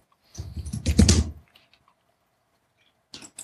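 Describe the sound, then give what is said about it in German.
A loud, rapid flurry of computer keyboard typing lasts about a second, then after a quiet pause a few more quick keystrokes clatter. “Und irgendjemand tippt hier verdammt laut in die Tasten.”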